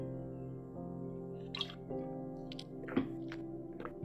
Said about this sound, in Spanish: es más, voy a tomar agua para decírselas.